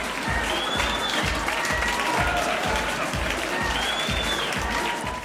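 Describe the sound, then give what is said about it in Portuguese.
A crowd applauds loudly and continuously for about five seconds as the next dancer, Tinderella, is welcomed onto the stage, with a few whistles rising above the clapping and a steady, regular low thumping underneath. “E agora, recebam no palco, com muitos aplausos, a nossa próxima dançarina, Tinderella!”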